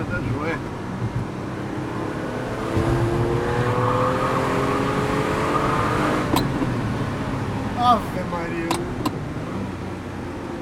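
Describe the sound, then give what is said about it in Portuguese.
A car engine hums and revs steadily from inside the vehicle, its pitch rising and falling as it shifts through gears, with people talking over it and a few sharp clicks near the end. “Ah, que delícia de carro. O carro é uma delícia.”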